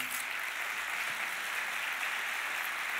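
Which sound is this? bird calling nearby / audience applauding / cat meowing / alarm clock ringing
audience applauding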